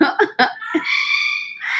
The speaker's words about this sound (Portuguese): Ah, hoje a gente tem a participação do papagaio Chuchu.